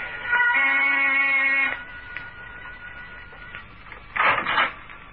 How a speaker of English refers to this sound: I rang the door buzzer.